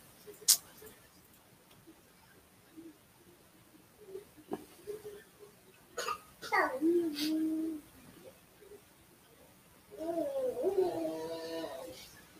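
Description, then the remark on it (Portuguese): A pet named Rodolfo growls in two drawn-out, wavering bursts, the first sliding downward in pitch and the second rougher, with a few faint clicks and ticks before them in otherwise quiet surroundings. “Esse rosnar que vocês ouvem no fundo é o Rodolfo, tá?”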